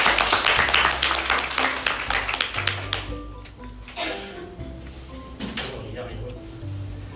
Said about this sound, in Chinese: 各位这句话认不认同？ 认同。 认同，掌声！